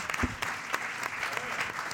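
An audience claps steadily, dense overlapping hand claps forming a continuous bright patter at moderate volume, with a faint voice briefly audible underneath.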